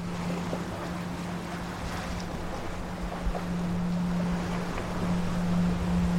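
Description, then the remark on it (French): A steady low humming tone from a boat's two locked propellers singing as it sails on the ocean, sustained without a break over rushing water and wind noise. “Ce bruit qu'on entend, c'est les hélices.”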